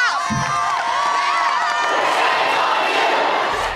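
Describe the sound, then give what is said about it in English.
A large crowd screams and shouts on the Tennessee House floor after lawmakers Justin Pearson and Justin Jones were expelled from the legislature, a loud, continuous roar with shrill individual voices rising above the dense wall of noise for several seconds. “Screams ringing out of the Tennessee House floor after two black Democrats, Justin Pearson and Justin Jones, were expelled from the legislature”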